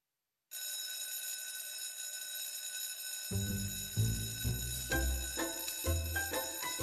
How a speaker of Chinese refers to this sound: 今天在幼儿园里，当上课铃声响起的时候。